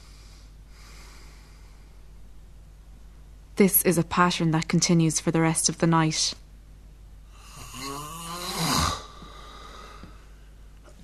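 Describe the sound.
A man speaks briefly, then a sleeper who has gone 33 seconds without breathing lets out one loud, rasping snort and snore as breathing resumes, set against a faint, steady low hum.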